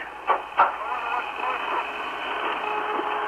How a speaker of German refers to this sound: You hear that? That whistling sound? Yeah. Woo! Richard. Yeah, it sounds like, uh, you know, outer space type music.